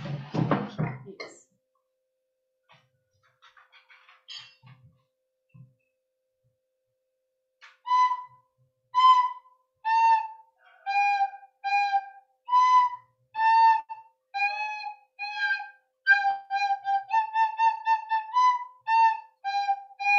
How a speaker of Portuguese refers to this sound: Eu vou apresentar uma flauta. Uma flauta.